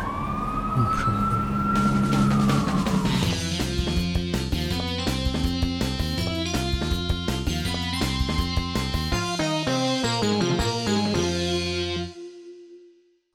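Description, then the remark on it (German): A siren wails and sweeps over a dense rumble of city traffic for a few seconds, then loud, rhythmic tonal sounds take over until everything cuts off abruptly near the end. “So sieht also das Großstadtleben aus. Herrlich. Lauter Verkehr, Lärm.”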